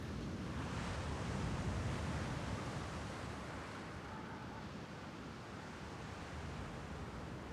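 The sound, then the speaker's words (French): A steady roar of rough ocean surf with troughs of 3 to 4 metres fills the scene, a continuous broad wash of water that swells slightly early on and never really breaks into distinct waves. No voices. “Les vagues m'épuisent.”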